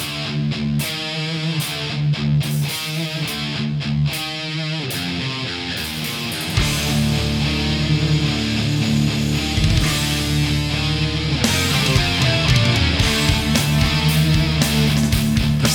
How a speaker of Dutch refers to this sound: En ik, ga ook nog, eh, ik kan ook muziek laten horen.